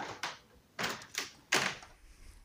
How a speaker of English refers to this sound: Sounds of doors.